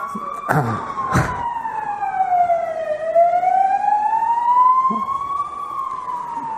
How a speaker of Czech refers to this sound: No a já nechám projet sanitku.